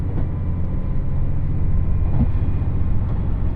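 A limited express train, the Nanpu No. 26 on the Dosan Line running from Awa-Ikeda to Tadotsu, with Tadotsu as the next stop, runs steadily, its deep continuous low rumble and rolling drone holding even, with a few faint clicks and thumps from the track and no voices.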